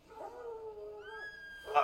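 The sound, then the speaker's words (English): A person imitates a dog with drawn-out whining, yelping vocal tones, ending in a sharp, louder bark-like burst; fairly quiet, with no other talk. “and barking.”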